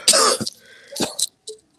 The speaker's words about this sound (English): Now, I heard somebody coughing. It's me.